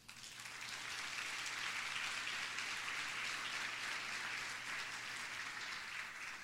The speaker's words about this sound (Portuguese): Eu acho que você podia aplaudir ao Senhor por isso.